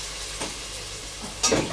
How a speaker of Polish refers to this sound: jeszcze nie, bo smażymy, zanim się mięsko wysmaży, damy już cebulkę, aby e, wypuściła soki. Będzie można ją przemieszać z tym mięskiem. Robimy oczywiście wszystko, żeby mięsko z cebulką nam nie przywarło.